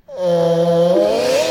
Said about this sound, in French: C'est un chat qui ronfle dans un micro de karaoké.